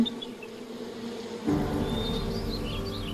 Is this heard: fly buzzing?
yes